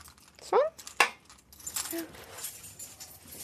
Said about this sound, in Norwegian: plukker med seg nøklene til de hun vet hun skal inn til, og hekter alle på en stor krok.